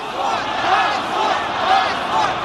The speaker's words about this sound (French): Honte crie la foule qui poursuit le convoi qui emporte Alexis Navalny